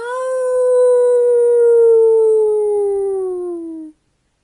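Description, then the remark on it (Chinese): A single long wolf howl, one steady tone that holds for about four seconds while slowly sliding lower in pitch, fairly loud, then stopping abruptly. No talking. ““哦，是狼，是是是是是真的狼！”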